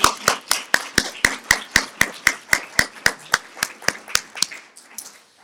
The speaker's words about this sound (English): if we can give another big round of applause to Detective Human